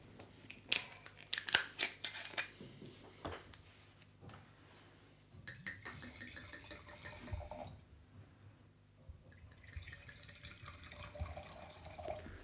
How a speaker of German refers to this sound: hat gerade den Socken ein bisschen abgezogen, dass er die Flaschen aufmachen kann.